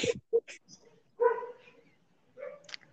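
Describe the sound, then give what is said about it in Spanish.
A dog named Britney lets out a few quick, sharp barks, followed by a longer, drawn-out whining bark and another short yelp, all loud. “Britney da señales de vida.”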